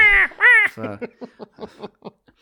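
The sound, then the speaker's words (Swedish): A baby in the video game Yoshi's Island screams, two loud shrill wails, then trails off into a quick run of short, fading sobbing bursts. “Och inte nog med att han skriker, du har ju dessutom nedräkningsklockan som låter.”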